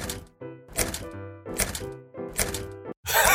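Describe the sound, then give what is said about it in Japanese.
A string of locks on a home's door being unlocked one after another as someone comes home from work, about five clunking, rattling bursts in a steady rhythm, fairly loud, with brief pauses between them. “厳重すぎないですか全部鍵やったんすかあ、270やで。”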